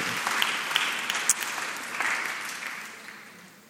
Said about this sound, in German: Leute, so da einen Applaus einfach geben.